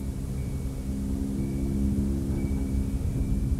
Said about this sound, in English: towards the end of the record, you can hear the chimes um, and the wind picking up again, kind of hinting at you know that this is um, a repeating cycle, you know, that we're entering.